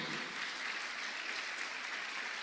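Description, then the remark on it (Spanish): An audience applauding steadily for the Lord: a dense, continuous wash of many hands clapping at an even level, filling the space without pauses. “Déselo fuerte al Señor de la gloria.”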